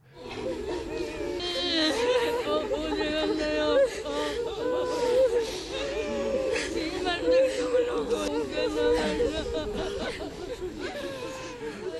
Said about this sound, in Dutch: kijk, je hoort mensen huilen.